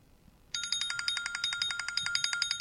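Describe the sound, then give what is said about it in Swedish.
A signal bell (ringklocka) rings continuously after a brief quiet start, its rapid rattling strikes forming a steady, harsh metallic trill with a slightly rough, rusty edge. No one speaks over it. “Det var en rostig signal du. Du får smörja upp ringklockan.”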